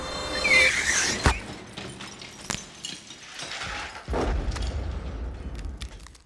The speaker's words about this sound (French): Une voiture me percute de plein fouet. Je l'ai pas vu venir. Pas eu le temps.